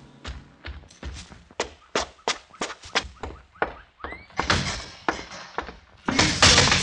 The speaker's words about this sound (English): slam the door, Mr. Cooper.